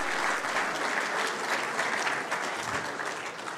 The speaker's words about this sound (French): Merci, François. Je vous demanderai d'applaudir monsieur François Leray, s'il vous plaît. Merci, François.